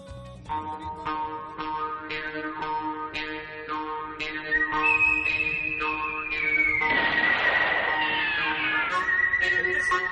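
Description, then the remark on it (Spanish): A clear, high whistled melody glides over steady plucked, twangy notes and sustained instrumental tones, joined midway by a louder swell of orchestral sound in a spaghetti-western film-score style. “Y todo empezó con un silbidito, con un silbido que sonaba así.”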